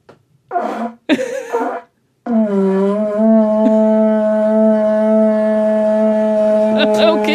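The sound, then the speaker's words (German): A vuvuzela is blown: a few short, sputtering blasts, then one loud, steady buzzing drone held for about five seconds until the end. “Und ich erinnere mich noch an diese entsetzlichen Buhu-Selas.”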